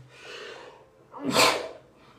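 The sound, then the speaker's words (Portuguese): A single loud sneeze from a person with a cold, preceded by a drawn-in breath and followed by a brief trailing exhale, with no talking. “Perdão que estou resfriado, doido para espirrar.”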